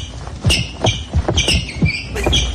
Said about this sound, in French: Mais ce sont les chaussures qui frottent sur la piste